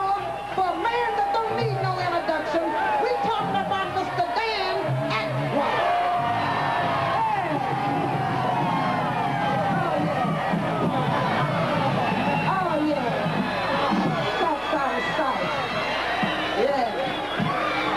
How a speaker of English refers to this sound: a big round of applause?